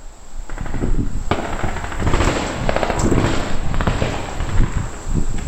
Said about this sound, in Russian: Потому что я, кстати, недавно нашел действующую военную базу у нас э, в районе. И вот я сразу понял, что обучение проходит там. Но потом я удивился, потому что военные начали ходить здесь. И звуки уже стрельбы были слышны еще громче.